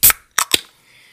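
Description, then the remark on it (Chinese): A sparkling water container is opened: one sharp crack, then two quick snapping pops, followed by a faint, steady fizzing hiss. No one speaks. “让我们轻易听气泡水的声音。”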